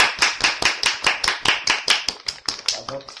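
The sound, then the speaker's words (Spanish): An audience breaks into applause, loud, steady clapping that falls into a quick, almost rhythmic beat of sharp slaps, continuing for a few seconds without any talking over it. “Un aplauso”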